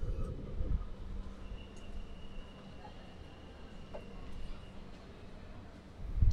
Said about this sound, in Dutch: Leuk dat je tijd hebt kunnen maken om met mij een, eh, een treinritje letterlijk eh, te maken. Ik dacht, eh, ik dacht, de ns interviewer moet je toch wel in een rijdende trein doen.